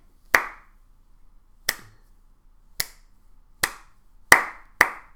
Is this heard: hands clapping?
yes